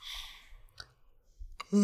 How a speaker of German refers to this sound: Meine, ich hab, ich meine Spiegelneuronen triggern, wenn ich dich äh, gähnen sehe.